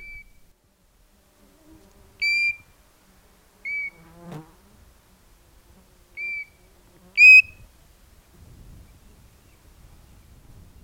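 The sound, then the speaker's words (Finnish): A European golden plover gives about five clear, plaintive whistled notes, each short and spaced a second or two apart, ringing out over a quiet outdoor background with faint rustling near the end. “Kaunis vihellys saattaa kulkijaa taivaanrannasta toiseen.”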